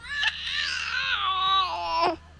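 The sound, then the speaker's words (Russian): A baby girl cries in one long, loud, wavering wail lasting a couple of seconds while trying to pull off a headset with a microphone, with a faint steady hum beneath it. “Это у меня дочка пытается снять наушники с микрофоном.”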